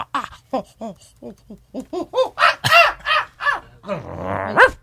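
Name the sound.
monkeys screeching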